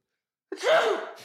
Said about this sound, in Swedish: Oj, prosit. Oj, gris. Som en katt.